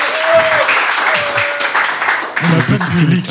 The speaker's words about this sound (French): Parce que oui, on a du public, vous l'entendez pas. Applaudissez le public